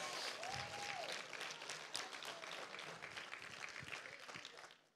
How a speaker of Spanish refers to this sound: Se trata, ahora sí puede aplaudir, se trata de lo que Dios quiere hacer en medio de tu problema. Apláudale bien a su Señor.